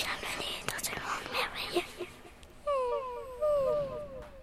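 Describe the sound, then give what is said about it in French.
After a breathy, whispery start, a child's voice makes a quick run of short, high, falling mews, imitating a small cat meowing several times in a row, fairly soft. “Un petit chat nous attendait. Il nous a dit oh, en miaulant”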